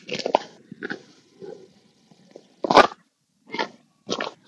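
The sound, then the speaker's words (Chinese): Footsteps crunch over icy ground, about six gritty, brittle steps at an uneven pace, each a short, sharp burst with quiet gaps between and no voices. “这个就还有点冰呢，已经踩在地上，上面就跟雪的声音不一样。”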